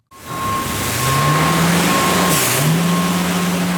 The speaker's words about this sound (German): Es ist ziemlich laut in der Kehrichtverbrennungsanlage. Nebenan steht ein großer Lastwagen, der eine Ladung abliefert.